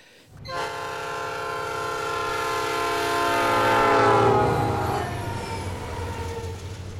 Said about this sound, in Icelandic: þegar sjúkrabíl keirir fram með þér þegar hann er að nálgast þig er það tónum doppler áhrifin